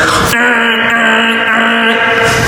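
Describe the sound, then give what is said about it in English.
A voice imitates a car alarm going off at night in Baltimore City, a loud, sustained, siren-like wail held for a couple of seconds, with no other sounds or talking. “you know, the car alarm going off, the security thing.”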